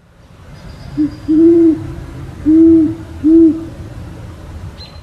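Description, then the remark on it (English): A great horned owl in Forest Park hoots four times, a short note followed by three deep, drawn-out ones in a steady rhythm, clear over a low background rumble. “keeping close tabs on a great horned owl that he named Charles”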